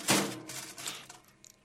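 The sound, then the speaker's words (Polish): A small portable oven door is pulled open with a sharp metallic clunk and a brief scraping rattle, followed by a softer knock and a couple of faint clicks; a spinach pastry is baking inside. “Ja pozwolę sobie to na waszych uszach otworzyć i zobaczyć, czy tutaj taki pasztecik ze, szpi ze szpinakiem.”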